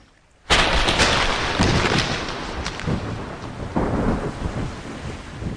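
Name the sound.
thunderstorm with rolling thunder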